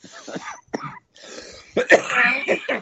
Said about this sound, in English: coughing up lungs.